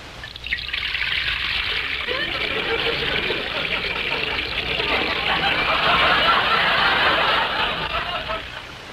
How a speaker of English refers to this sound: Rochester, will you pour a glass of eggnog for Mr. Harris, please? Yes, sir.